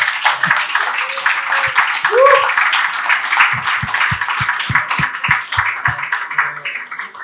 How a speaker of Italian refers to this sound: Serve forse un applauso per Giuseppe